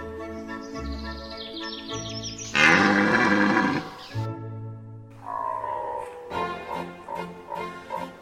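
Red deer stags bellow during the rut: deep, hoarse moaning calls with one loud roar in the middle and fainter groans before and after. No one speaks.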